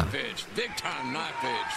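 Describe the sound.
A sharp, fleshy slap of a wrestling chop to the chest cracks out once, loud, over a busy background of voices and crowd noise.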